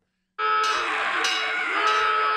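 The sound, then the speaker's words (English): An alarm sound effect: a loud, blaring alarm starts abruptly after a brief silence and holds steady, with a sharper pulse recurring roughly every half second. No one speaks over it. “Where's the alarm?”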